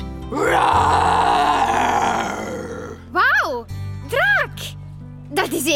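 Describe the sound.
A person imitates a dragon's growl: one long, loud, rasping roar-like growl, followed by three shorter swooping vocal groans rising and falling in pitch.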